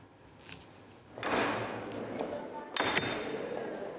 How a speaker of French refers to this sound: Inlassablement, Neda Razavipour casse, trie et empile des bouts de porcelaine, des morceaux de verre et des objets de famille.